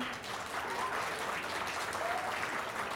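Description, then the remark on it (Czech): A steady wash of applause from an audience in Ostrava fills the entire stretch, many hands clapping densely and evenly at a moderate level, with no voices standing out above it. “Hezky se roztleskali Ostravané a Ostraváci.”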